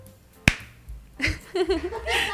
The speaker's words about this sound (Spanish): Yo hago el aplauso.